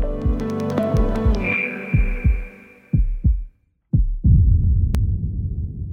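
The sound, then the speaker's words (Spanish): Deep, thudding heartbeats of a heart pumping blood through the circulation pulse in a steady rhythm, loud, over a low humming drone and tonal musical bed, with a brief silent gap before the throbbing resumes. “Como pueden escuchar, la circulación debe tener un equilibrio exquisito para que funcione bien.”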